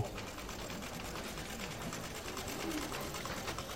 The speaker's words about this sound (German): Einer näht mit einer Nähmaschine eine kleine Navy-Uniform.